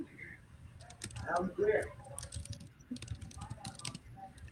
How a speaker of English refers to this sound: I, um, I, I hear um, some noise. I hear something. Something no, like keyboard.